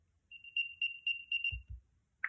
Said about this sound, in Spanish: yo por ejemplo lo estoy buscando en casa y no sé dónde está, le doy a reproducir sonido.